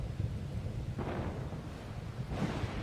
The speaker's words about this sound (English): There's rain coming down. It's stormy.